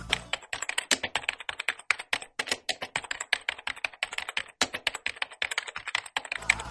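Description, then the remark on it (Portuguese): Rapid, steady keyboard typing fills the whole stretch, a dense run of crisp plastic key clicks with brief pauses, clear with no voices; a recorded typing sound played during a customer service phone call. “Porra, filha da puta, eu sei que é uma gravação que você não tá digitando nada.”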